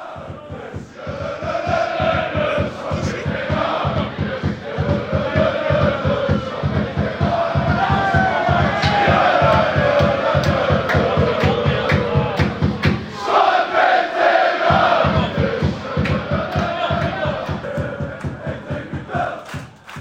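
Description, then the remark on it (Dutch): A loud football crowd at the RKC–Heracles match at the Mandenmakerstadion in Waalwijk chants and sings in unison, carried along by steady rhythmic clapping or stamping. The massed voices swell and hold for about twenty seconds, briefly thinning partway through before surging again. “Ja, er was genoeg eh, reden tot juichen en zingen, heren.”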